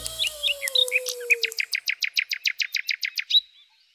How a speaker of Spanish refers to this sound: Buenos días, ruiseñor. ¡Qué bonitos trinos canta hoy!